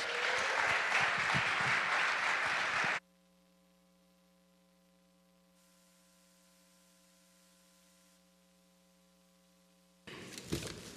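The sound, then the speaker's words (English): A crowd at Heartland claps loudly for about three seconds as a speaker comes up to share, then the applause cuts off into a steady low electrical hum before a short burst of clapping returns at the very end. “So give it up”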